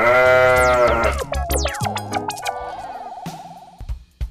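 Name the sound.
sheep bleating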